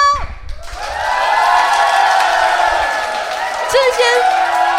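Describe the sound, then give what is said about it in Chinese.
A live audience cheers and applauds, a dense, steady wash of clapping and shouting voices with a few high whoops rising above it, starting abruptly after a brief quiet moment and carrying on loudly. “这些不是罐头音效，好了啦，这些不是罐头音效，因为我们这应该算是南部第一场。”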